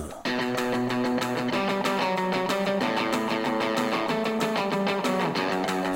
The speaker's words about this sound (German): So, und wir gehen rein in den nächsten Part. Da setzt eine Gitarre ein mit einem Riff, das klingt so.